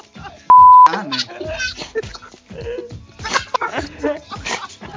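A brief electronic beep, then a dog lets out a rapid run of short barks, yips and high whimpering whines that keep going without a break.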